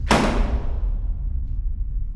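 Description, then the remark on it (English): A door slams shut in a house with a single heavy, sharp thud, its low boom ringing out and fading over the next two seconds. No one speaks. “Was that a door that just slammed?”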